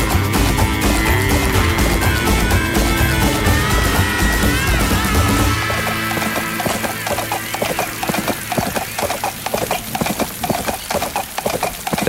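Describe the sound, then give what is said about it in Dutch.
A rock song plays loudly, then gives way to a steady, rhythmic clip-clop of horse hooves, prominent, continuing on its own to the end. “gaan ze. De paard.”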